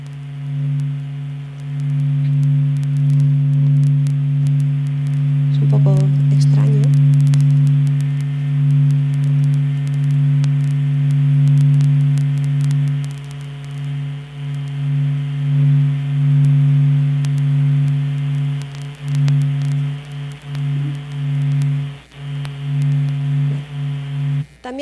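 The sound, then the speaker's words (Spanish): A sonification of internal sound waves too low to hear, their frequency multiplied 42,000 times to become audible: a steady, loud low drone with stacked humming tones, continuous throughout, with faint static crackle and scattered clicks. No one speaks. “eso provoca ondas sonoras que no podemos escuchar porque son muy graves, pero si multiplicamos por 42.000 veces su frecuencia, entonces ya entran dentro del rango de sonidos que podemos escuchar.”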